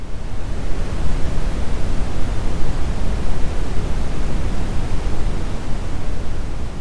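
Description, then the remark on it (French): A steady, continuous brown noise (also called red noise) hiss, deep and rumbling with most energy in the low end, resembling distant surf. It holds constant loudness throughout with no other sounds. “Enfin, on a le bruit brun, aussi qualifié de bruit rouge, bruit de marche aléatoire, bruit de Brown ou encore bruit brownien.”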